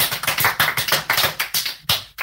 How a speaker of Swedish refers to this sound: Ni ska ha eh, en, en stor eloge eh, faktiskt för att ni ville vara med. jag tycker vi kör en liten applåd för den här helgen också.